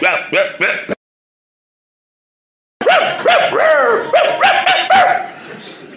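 A dog barks loudly: three quick barks, a short silence, then a rapid, excited string of sharp yapping barks that gradually trails off.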